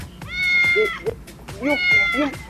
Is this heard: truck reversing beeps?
no